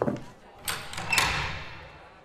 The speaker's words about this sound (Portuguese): Vocês então sobem a rampa. A porta abre